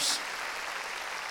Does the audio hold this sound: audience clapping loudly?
yes